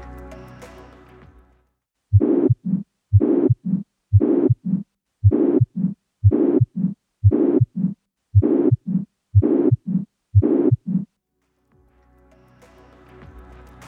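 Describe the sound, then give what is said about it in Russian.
A pansystolic heart murmur of a ventricular septal defect, heard at the left sternal border in the fourth intercostal space: about ten regular beats, each a loud, sustained harsh whoosh filling the interval between heart sounds, heard alone. “при дефектах межжелудочковой перегородки возникает пансистолический шум, который прослушивается у левого края грудины в четвертом межреберье”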